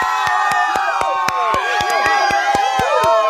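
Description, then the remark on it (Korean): A sound effect of steady, rhythmic clapping under a loud crowd of cheering and whooping voices, played on a radio show as praise for a listener, a bright, continuous burst of celebration that stays full throughout. “속으로만 욕하고 겉으로 표출하지 않고 잘 보낸 저에게 칭찬의 박수 보내주세요.”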